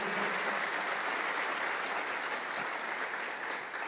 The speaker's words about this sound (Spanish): Si alguien lo cree, por favor, apláudele fuerte al Señor.